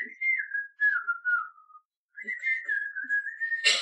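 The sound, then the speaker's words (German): A person whistles a cheerful melody from an animated film, two gliding phrases separated by a short pause, clear with no talking. “Also zum Beispiel, wenn wir hier irgendwas aufbauen oder einfach so, dann fange ich plötzlich an, irgendwas zu pfeifen.”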